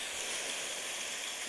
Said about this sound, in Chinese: 这是下雨的窗户，然后还有普通的雨天。